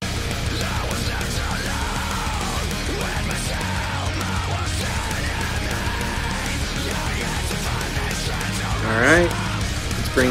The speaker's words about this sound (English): So this last example is a metalcore style track. So I'm gonna play the track just raw with no mix bus processing